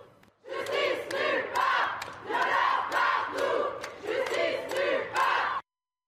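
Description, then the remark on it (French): A protest crowd chants the far-left slogan "justice nulle part, violeur partout" in unison, loud rhythmic bursts of many voices repeating in a steady cadence for several seconds before cutting off abruptly. “Voilà, on entendait justice nulle part, violeur partout, qui est un slogan euh, de l'extrême gauche qui est adaptée à, cette, euh, à cette situation.”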